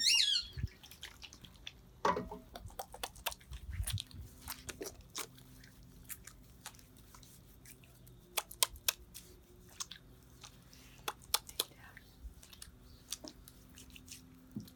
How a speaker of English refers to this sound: This is the way we wash our hands.